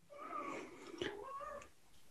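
A male cat with a toy in its mouth lets out a long, drawn-out, muffled meow, wavering in pitch over about two seconds with a brief rustle midway.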